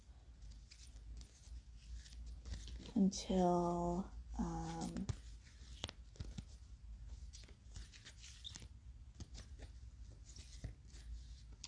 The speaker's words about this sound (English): And now I'm going to shuffle my cards